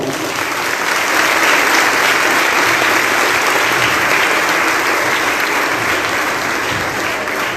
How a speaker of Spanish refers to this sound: Gracias, te queremos, Madre, y te brindamos un fuerte aplauso.